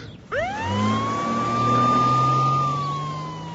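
An ambulance siren winds up sharply and holds a long, loud, steady wail over a low engine rumble, its pitch sagging slightly at the end as it pulls away.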